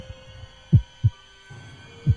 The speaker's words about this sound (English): Absolute silence, but for my heartbeat and the man, or creature, at my window.